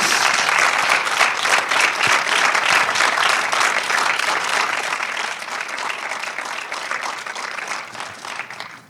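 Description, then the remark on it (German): An audience applauds as the director and the author of the film Endzeit are called onto the stage, a dense wash of many hands clapping at once that holds strong for several seconds before gradually thinning and fading toward the end. No one speaks. “Bitte einen Applaus. Applaus”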